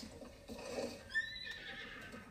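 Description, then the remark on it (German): A horse whinnies once in a video game as the player pats it, a bright quavering neigh that rises then trails off over soft background game ambience, with no talking. “Ich muss mein Pferd ein bisschen tätscheln, das ist noch sehr wild.”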